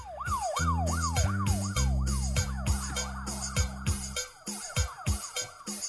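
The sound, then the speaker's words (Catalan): A rapid, wailing ambulance-style siren sweeps up and down over a punchy beat and deep bass notes, opening an upbeat cumbia tune; loud, with no voices. “Per això la cúmbia de l'ambulància.”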